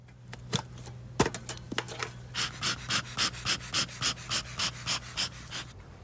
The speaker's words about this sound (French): pour éviter quand même qu'elles s'énerve trop, il utilise son enfumoir parce qu'en fait la fumée eh bien, les mm. empêche de communiquer entre elles.